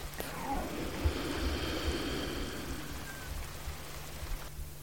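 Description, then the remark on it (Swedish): Steady rain patters down in a continuous, even wash of noise, moderately loud, with a low hum underneath and no voices. “Mindfulnessmeditation i regnet”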